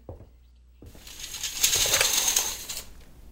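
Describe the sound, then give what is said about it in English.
A telephone handset is lifted after a moment of quiet, followed by sharp plastic clicks and rattling as the hook is pressed to check for a dial tone. There is no dial tone and no voices. “Check for a dial tone.”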